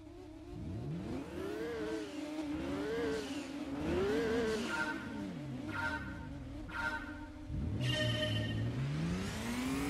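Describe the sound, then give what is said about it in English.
Car engine sounds from the PlayStation One racing game Gran Turismo 2, running on the Bleem emulator on a Dreamcast, roaring throughout, its pitch climbing and dropping in repeated sweeps like gear changes, with a deeper rumble toward the end; loud and steady with no talking. “uh, yeah, I mean, like this is a like fully 3D racing game for the PlayStation One, and it's running pretty well.”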